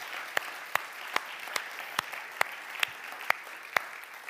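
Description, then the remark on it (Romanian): A church audience applauds steadily to thank a group of 12 volunteers from Timișoara who worked on building the church, a dense wash of clapping with sharper, rhythmic claps standing out about twice per second, as if part of the crowd claps in time. No one speaks. “Haideți să-i aplaudăm, haideți să le mulțumim pentru că au făcut o lucrare ca și aceasta”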